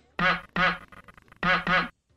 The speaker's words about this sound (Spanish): Eso, no más, qué bonito. Eso más bien parece el pato Donald, pero bueno. sirve igual, sirve igual.